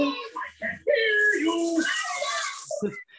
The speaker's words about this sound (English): this man's pouring some cereal.